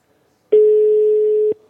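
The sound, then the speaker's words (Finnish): A single ringback tone from an outgoing phone call made from a studio during a live broadcast: one steady, loud beep lasting about a second, starting and stopping abruptly, with near silence around it and no talking. “Kato, nyt se soi, nyt se soi.”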